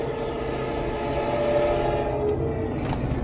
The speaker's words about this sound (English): There's a train.